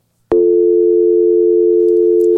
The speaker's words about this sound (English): The dial tone. Yeah. That's right. That's what we're looking for. Dial tone.